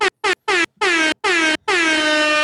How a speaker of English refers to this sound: This weekend, I cannot lie to you. I gotta give another air horn.